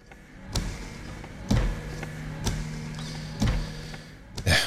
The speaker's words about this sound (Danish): det er regnvejr i øjeblikket, så de der vinduesvisker, de kører hele tiden.